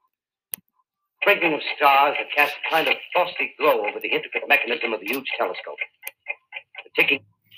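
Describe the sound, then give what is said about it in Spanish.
Light, steady ticking of the precise Swiss clockwork mechanism of a huge telescope in a dark observatory dome, made in the canton of Solothurn, runs beneath a person talking, then comes through more clearly as sparse, crisp clicks once the voice pauses near the end. “Los ligeros ruidos de tic-tac que oyen ustedes son las vibraciones de su preciso mecanismo de relojería suiza fabricado en el cantón de Solothurn, en Suiza,”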